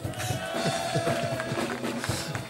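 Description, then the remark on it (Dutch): A studio audience in Caro Studio 4 bursts into sustained applause for the host of a live show, a dense crackle of many hands clapping at once, steady and fairly loud for a few seconds, with a faint tone lingering underneath. “Mag ik een hartelijk applaus voor mijn kameraad Mark Stakenburg.”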